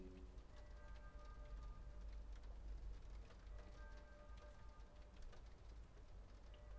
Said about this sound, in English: Right, I really hope you can hear that in the background. That's the um, the church bells ringing for six o'clock, and the rain simultaneously hitting off the window.